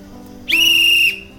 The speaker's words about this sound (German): Ein wohlbeleibter Schaffner hatte Mühe, das grüne Band, an dem seine Pfeife befestigt war, zu entwirren. Schließlich hatte er es geschafft. Der Schaffner blies in die Pfeife und hängte sie sich dann um den Hals.